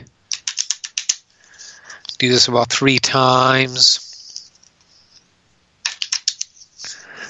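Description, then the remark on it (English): Quick bursts of crisp, rapid fluttering clicks as a deck of cards is riffle shuffled for a card reading, coming in short runs before and after a man speaks briefly. “A little bit of a riffle here. These cards shuffled up good.”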